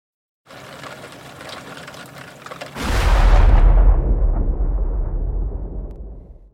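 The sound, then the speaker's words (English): On a stormy night, a soft steady rumble gives way to a sudden loud crack of thunder from a lightning strike, followed by a deep rolling boom that slowly fades over several seconds. “A strike of lightning flashed before her.”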